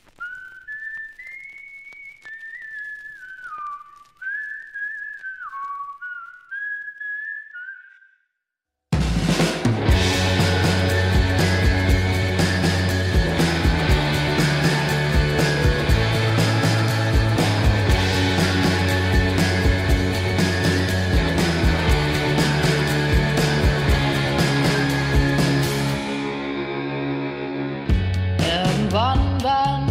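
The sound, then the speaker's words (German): A lone whistled melody opens, then a loud, lush pop song with a full, cinematic orchestral arrangement bursts in and plays continuously, briefly thinning near the end. “Wir hören mal kurz rein und in diesen Song, der heißt ….”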